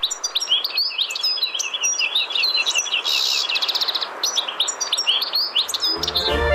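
A small songbird, a European goldfinch living in Mersin, chirps in rapid, tinkling bursts, with twittering notes tumbling over one another continuously, with no voices present.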